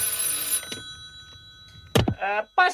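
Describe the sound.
A telephone bell rings for about half a second at the start, bright, then goes quiet before a man's voice starts talking.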